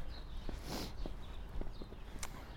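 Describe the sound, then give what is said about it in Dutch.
Footsteps of people walking under the Pentagon building through a small gateway, a handful of sharp, hard-soled steps at an unhurried pace over a steady bed of background noise, with no one speaking. “Ja, we lopen nu onder het Pentagon door, door het poortje.”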